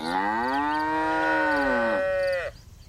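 A dairy cow on a dairy farm in Plouzané, Finistère, lets out a long, loud moo that holds steady for about two seconds, then a second lowing tone trails off, with no talking.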